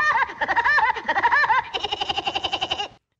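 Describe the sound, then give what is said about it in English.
Woody Woodpecker's signature laugh, a loud, high, bouncing cackle that ends in a quick run of rapid, evenly spaced staccato hoots, heard on its own for about three seconds. “So let's hear the real Woody one more time.”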